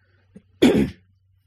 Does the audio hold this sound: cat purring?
no